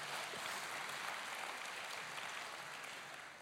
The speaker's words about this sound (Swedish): Ja, jag ska applådera också, för applåden gäller ju inte mig. Den gäller högre upp, så att säga.